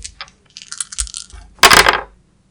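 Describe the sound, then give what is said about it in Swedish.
Dice clatter and rattle across a hard surface, a run of light clicks followed by a louder burst of tumbling before settling into silence; dice rolled for a tracking check in a role-playing game. “Du kan slå trackingslag om du vill för att försöka.”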